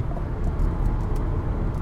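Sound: car interior road noise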